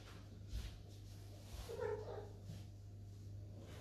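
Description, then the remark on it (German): A cat meows once, a short rising-and-falling call, over a steady low electrical hum and faint background noise; no one speaks. “Ah, da kommt die Katze und stirbt gleich.”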